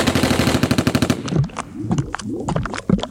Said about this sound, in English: Waste him now! Some bullets bounced, some bit. I thought we aced him sure.